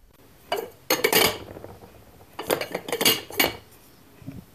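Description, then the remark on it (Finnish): Sarvis Katrilli plastic plates and cups clink and clatter together in a few bright bursts, with two clusters of rattling knocks separated by brief pauses and no voices. “70- ja 80-luvun koululaiset ovat syöneet nakkikastikkeensa sarviksen muovisilta katrillilautasilta ja pesseet hampaita sarvismukista.”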